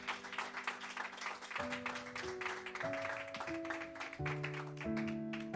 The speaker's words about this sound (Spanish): Si tú lo crees, dale tu mejor aplauso al Señor.